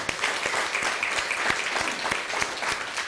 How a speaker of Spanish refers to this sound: A la comunidad de México, también a todo nuestro país. A lo que es Centroamérica y Suramérica, también un fuerte aplauso.